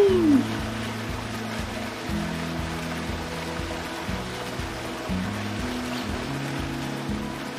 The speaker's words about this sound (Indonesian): Yuk, kita ke air terjun Lembah Anai.